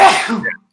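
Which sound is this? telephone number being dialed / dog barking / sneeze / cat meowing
sneeze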